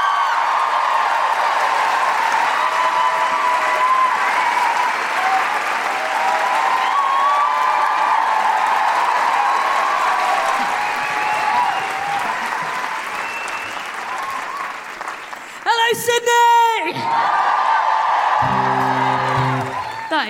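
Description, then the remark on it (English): A large audience at a Guilty Feminist show in Sydney applauds steadily with dense, continuous clapping, punctuated by scattered whoops and cheers, welcoming a folk singer on stage; near the end a brief tonal sound cuts through as the applause carries on. “To play us out and to leave us feeling on a massive guilty feminist high put your hands together and make incredible, welcoming Sydney woohooing guilty feminist noises”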